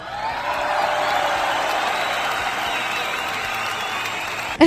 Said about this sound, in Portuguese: eu vou botar um efeito de palmas para você, viu?